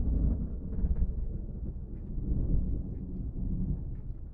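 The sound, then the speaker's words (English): Deep, heavy thunder rumbles on continuously after a flash of lightning, a loud low roll that swells and eases without a break and with no voices over it. “Ooh, another flash of lightning.”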